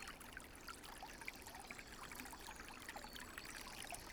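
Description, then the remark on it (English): Steady trickling natural spring water pours continuously from a pipe coming out from underneath an earthwork bank built up over the source, a bright splashing dribble with gurgles and small plinks, moderately loud, with no voices. “A natural spring? piped out from underneath earthworked banking that's been built up over the source.”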